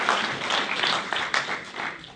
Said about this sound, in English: God bless all those who couldn't be here today but who want to connect in. We want to give you a round of applause as well. Let's welcome all our guests online.